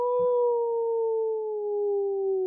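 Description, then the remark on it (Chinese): A wolf howls once: a long, steady mid-pitched wail that slowly drifts lower over about two and a half seconds, loud and on its own with no talking. “我有像狼一样的狂吼吗？”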